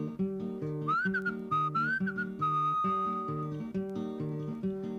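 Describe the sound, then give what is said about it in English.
Someone whistles a birdlike call as the bird's sound in a song about a farmer's animals: short warbling, chirpy glides followed by a long steady high note, sounding over a steady, rhythmic strummed accompaniment with no singing. “Well, I had me a dog, and the dog pleased me, and I fed my dog under yonder tree, and the dog went, and the cat went, meow. and the bird went.”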